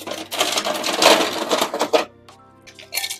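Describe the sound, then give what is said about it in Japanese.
Ice rattles out of a light green refrigerator's dispenser into a glass in a loud, continuous clattering rush for about two seconds, followed by a pause and a brief final burst of clinking. “ライトグリーンの冷蔵庫から氷を入れる。”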